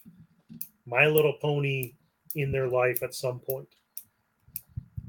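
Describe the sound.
Scattered sharp clicks of a man's ballpoint pen being clicked sound now and then, some in the pauses and some beneath a person talking steadily.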